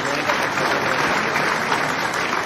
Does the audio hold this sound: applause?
yes